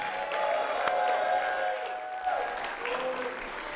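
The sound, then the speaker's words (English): A large church audience claps steadily and cheers, making noise for those watching online, with scattered whoops and shouting voices rising over the continuous wash of applause, loud and reverberant throughout. “can we let those online know that those of us in the house love them by making some noise?”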